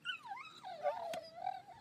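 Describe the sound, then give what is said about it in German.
Excited hunting dogs whimpering and whining in high, wavering tones, fairly loud, with a brief sharp click partway through and no talking, as they are taken out of a car in a forest for a driven hunt. “Die Hunde werden aus dem Auto geholt. Die sind total aufgedreht.”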